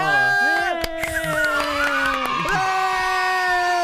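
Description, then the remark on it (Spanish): A studio audience cheers and whoops loudly and steadily for about four seconds to welcome a guest on a weekday morning show, with sustained shouted tones and only a few scattered claps underneath. “Fuerte el aplauso para recibirla.”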